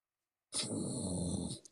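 A person lets out a low, rough growl from the throat, one sustained, gravelly rumble lasting about a second after a brief silence, loud with no talking.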